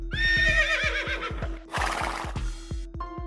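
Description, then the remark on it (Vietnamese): A horse whinnies loudly and shakily over a steady run of rhythmic hoof clip-clops, with a burst of snorting noise in the middle and a shorter neigh near the end. “Không sao, không sao, cầm bay thì cưỡi ngựa thôi.”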